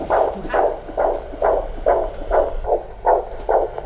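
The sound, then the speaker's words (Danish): The fetal heartbeat of a baby girl through a doppler monitor during a pregnancy check: rapid, steady whooshing pulses, about nine in four seconds, fairly loud over a low static hiss, with no one speaking. “Og smuk puls ressourcestærk og fin, som man skal være.”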